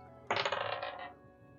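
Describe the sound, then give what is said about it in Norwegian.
Dice clatter across a hard tabletop in a quick burst of rattling clicks that lasts under a second, then settle into quiet. Fairly loud, with no voices. The dice are rolled for a perception check. “Kaste terning.”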